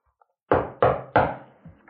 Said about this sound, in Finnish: Koputin puuta.